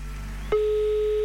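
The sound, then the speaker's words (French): A telephone ringback tone on an outgoing call placed via a computer to Don Martin in the canton of Vaud: a steady, pure electronic tone cuts in abruptly partway through and holds at an even, fairly loud level until the end, with no one talking. “Ça va s'afficher sur mon ordinateur et ça sonne maintenant.”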